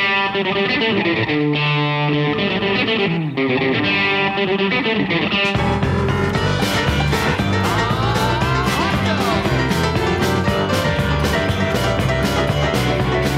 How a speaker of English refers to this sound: It's kind of their, I feel like, Western take on a song.